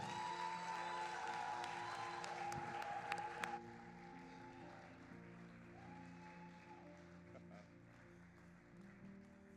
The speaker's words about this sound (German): Guck mal, können wir den beiden nochmal diesen Applaus geben?